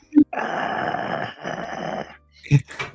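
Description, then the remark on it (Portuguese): A Doberman in a corridor gives a long, rough, menacing growl lasting about two seconds, loud, framed by a short sharp snarl before it and a couple of harsh barks or snaps after. “olhando pra trás do corredor que tá pra escadaria, vocês veem o outro Doberman ali olhando para vocês. Furiosamente.”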